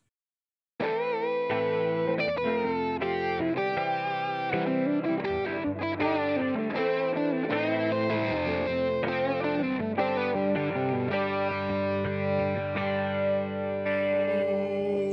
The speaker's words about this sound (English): You want to play that music? Yeah, here we go. Ready? Mm-hmm. Make sure it's loud enough.